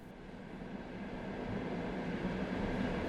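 vehicle, train riding on rails

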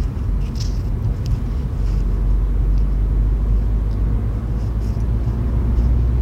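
vehicle, car interior rumble

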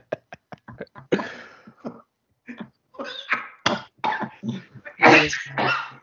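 human body sound, coughing

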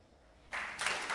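crowd, applause

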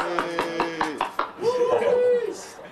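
crowd, round of applause

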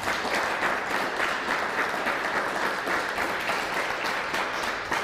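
crowd, audience applause

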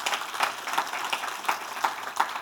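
crowd, audience applauding

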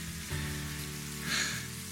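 nature, rain falling

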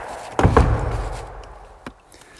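household object, door falling shut

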